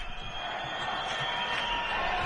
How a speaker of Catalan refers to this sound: Crits de penya, penya, escolteu.